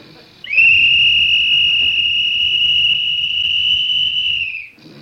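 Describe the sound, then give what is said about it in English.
A whistle is blown to try to wake a sleeping man in one long, loud, steady high-pitched blast lasting about four seconds, rising slightly at the start and dipping as it ends, over a faint low rumble. “Andy takes his whistle.”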